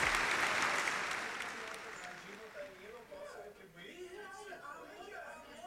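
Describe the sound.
A burst of dense applause opens loud and steadily fades over a few seconds as people start talking over its tail.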